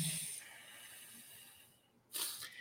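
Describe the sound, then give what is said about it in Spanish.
A long, soft airy exhale streams out through the nose for nearly two seconds during alternate nostril breathing (anuloma viloma pranayama), then after a brief pause a sharper, louder breath rushes in. Quiet, no talking. “esto que acabas de realizar es un pranayama que se llama anuloma viloma o respiración alternada.”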